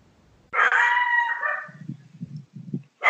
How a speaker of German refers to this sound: Da ist der Hund. Das ist der Hund.